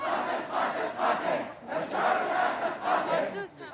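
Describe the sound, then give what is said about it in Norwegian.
A crowd of Syrian demonstrators and activists in Gaziantep, Turkey, shouts together in rhythmic waves, loud chanted bursts rising and falling several times with brief dips between them. “Syriske demonstranter og aktivister ute i Gaziantep derimot peker ut syndebukker.”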